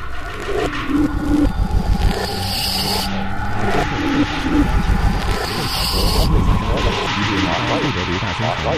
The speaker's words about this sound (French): Et, et lui, il dort encore. Rien à faire pour l'empêcher de ronfler.